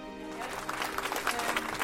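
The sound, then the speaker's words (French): An audience breaks into steady applause again as a girl sits back down after speaking into a microphone, a dense crackle of many hands clapping at once, sustained throughout the short stretch. “Quand elle se rassoit, les applaudissements s'élèvent à nouveau.”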